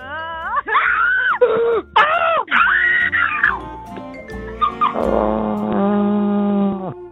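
A loud screaming sound effect: a series of shrill, drawn-out wailing cries that rise and fall in pitch, continuous for several seconds with no talking.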